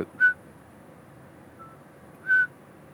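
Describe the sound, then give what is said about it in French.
An imported whistling toad gives two short, clear, high-pitched peeps about two seconds apart, with a fainter one in between, over a soft, steady background hush. “Ils ont importé ces crapauds avec sa femme, parce que quand ils se sont connus, quand ils allaient se faire des bisous à côté d'une mare, où il y avait ces crapauds siffleurs.”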